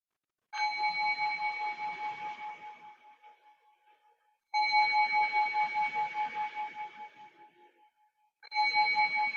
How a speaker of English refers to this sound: Remember that bell was not the end of the sitting, it's the beginning of the transition from sitting to standing to walking.